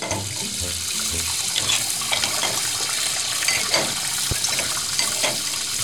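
A tap runs steadily into a sink while dishes are washed, with a continuous hiss of water broken by occasional light clinks and knocks of crockery. No one speaks.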